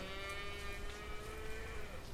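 A calf lets out one long, drawn-out moo, a steady mid-pitched bleating call with a slight dip near the end, heard on its own with no talking.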